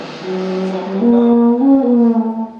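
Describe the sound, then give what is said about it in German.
Someone clumsily attempts to blow an alphorn properly, producing a low, wavering note that lurches up in pitch partway through and wobbles unsteadily for a few seconds, loud. “Dieses Blasen, das ist der klägliche Versuch von Alexander Tauscher, richtig zu blasen”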